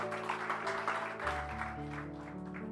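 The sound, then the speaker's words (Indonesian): A crowd claps steadily for a few seconds, a dense, even patter of applause over sustained low musical tones that shift pitch partway through. “Mari berikan tepuk tangan.”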